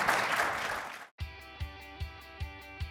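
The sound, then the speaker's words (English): An audience at the Auto Intel Summit and NRC Spring Summit in Raleigh, North Carolina applauds a panel, a loud, dense wash of clapping in the first second, then cuts off abruptly and gives way to music with a steady, evenly spaced bass beat. “Let's give them a, a, a round of applause.”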